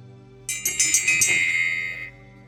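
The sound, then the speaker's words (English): A bright meditation bell rings out, struck a few times in quick succession, its clear high tone shimmering and sustaining for about a second and a half before stopping, with no one talking. “So I like to bring that into our our being as well as ringing a bell,”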